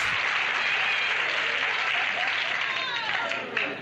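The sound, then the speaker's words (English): Steady, dense applause from an audience, a continuous crackle of many hands clapping at an even loudness for several seconds, with faint voices mixed in near the end. “The audience is applauding because he's getting what's coming to him.”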